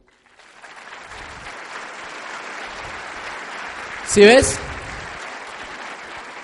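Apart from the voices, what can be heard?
loud applause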